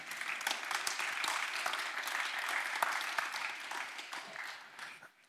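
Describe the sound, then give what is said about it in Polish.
An audience claps steadily for about five seconds for the author Jens Orbach at a book event in the 'nowe książki' (new books) series, a dense wash of many hands that holds even and then tapers off slightly at the end. “Można być brawa autorowi.”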